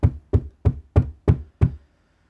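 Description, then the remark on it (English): Six firm knocks on a door in a steady, even rhythm, fairly loud, followed by silence with no one talking. “I'm tired of knocking.”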